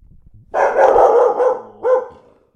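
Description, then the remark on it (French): A dog, Kinaï, barks twice: a long, loud, drawn-out bark followed by a shorter one, with nothing else in the background. “ses aboiements”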